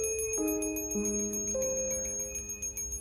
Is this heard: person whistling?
no